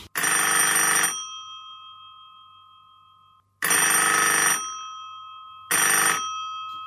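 A telephone rings three times, each a loud, bright electric bell burst of about a second, with a faint ringing tone lingering between them. No one speaks.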